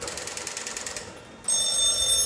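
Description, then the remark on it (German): An old telephone bell rings with a rapid, metallic rattling trill for about a second, then stops and gives way to a steady hum with faint high whistling tones. “Aber Ruf doch mal mich an hier. Ich habe die Nummer 2150.”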